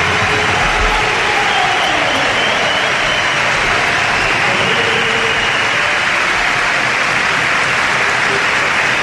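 A loud, sustained ovation from a large arena crowd at the Palau Blaugrana, greeting Ricky Rubio as he enters the court for a European competition basketball game, dense applause and cheering roaring steadily for several seconds with no letup.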